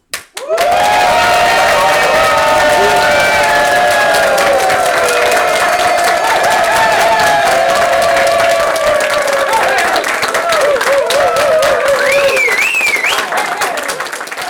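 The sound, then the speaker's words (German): A large audience at a crime-fiction festival bursts into sustained, enthusiastic applause for radio plays after listening to them, with loud cheers and whoops rising above dense clapping, continuing at full strength for the whole stretch before easing slightly at the end. “Und nach dem Hören werden die Hörspiele natürlich frenetisch gefeiert.”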